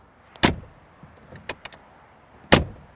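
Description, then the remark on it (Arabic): Two heavy, solid door slams from a G-Class car as its door is opened and shut, one near the start and another about two seconds later, each a sharp loud thud with faint clicks and rattles between them; no one speaks. “هلا ما كان فيني افتح الباب وسكره عشان اسمعكم الصوت احلى شيء بالجي كلاس هالاصوات اسمع لا تقول لي شفت مو شفت اسمع الصوت حتى حتى في الابواب هذه صوت يعني مميز لو سكروا عينك عادي تقول لهم هذا جي كلاس اسمع”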